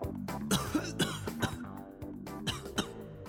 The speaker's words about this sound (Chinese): 直至老者把玩的黑色物体快盘出包浆的时候，只听到了一阵虚弱的咳嗽声响起。